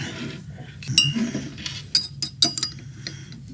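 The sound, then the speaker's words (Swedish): Several bright metallic clinks ring out, three sharp hits spaced unevenly over a few seconds, like a bottle opener knocking against a glass bottle, with faint handling noise between them. “Och, Där har du en flaska. Tack. Där har du en öppnare.”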